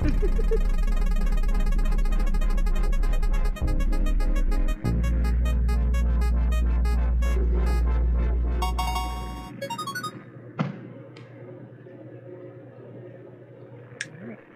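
An upbeat musical theatre pop song plays loudly with a heavy bass line and steady beat, likely with singing, then cuts off after about ten seconds, leaving quiet room sound and a few clicks.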